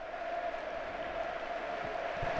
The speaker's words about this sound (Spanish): Ovación de gala para José Lumato. también el abrazo con Carlo Ancelotti.